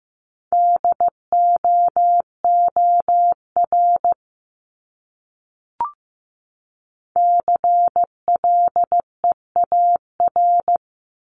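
Morse code sent at 15 words per minute, spelling out words from a list of the top 500 words: a steady mid-pitched beep keyed into short dots and longer dashes, in two runs of characters separated by a silent pause with a single soft click.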